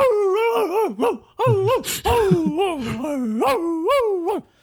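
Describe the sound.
A person imitates a dog barking back, voicing a drawn-out string of dog-like yowls and bark sounds, rising and falling in pitch with a couple of brief breaks, loud, no other talking.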